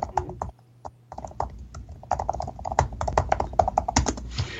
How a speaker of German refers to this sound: schreibe ich jetzt mal ein paar Takte auf dem Typecover vom Surface Go ich weiß nicht, äh, du kannst es jetzt besser beurteilen. Klingt es mhm. einigermaßen ähm, authentisch?